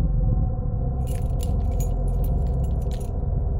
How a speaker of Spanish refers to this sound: Él agarró las llaves de la oficina en la que estábamos y se apresuró a la puerta.